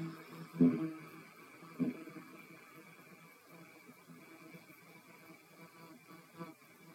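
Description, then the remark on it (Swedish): A low, steady hummed Om chant, exhaled during a guided breathing exercise, drones for several seconds, with a couple of brief louder swells early on before settling into an even, sustained tone. “Och andas ut mera ljudet. Om.”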